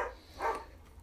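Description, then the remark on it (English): Two short, muffled barks from dogs that are acting up, spaced about half a second apart, faint against a low steady background hum with no one talking. “And sorry, you can probably hear the dogs in the background, they're acting up.”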